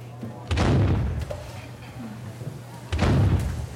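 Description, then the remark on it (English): Two loud cannon shots go off about two and a half seconds apart in an office, a cannon sound played whenever a browser is downloaded, each a heavy boom followed by a brief rumbling decay. “Another cannon another. The office becomes a naval war zone, and the engineers bathe in the percussion, high fiving while calling out higher and higher download numbers.”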